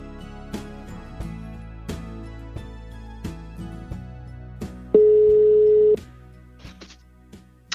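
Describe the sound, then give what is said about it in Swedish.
A single loud, steady telephone ringback tone sounds for about a second while calling, layered over a rhythmic music bed with sharp percussive hits; no one speaks. “Jag måste ringa upp och fråga om de menar allvar.”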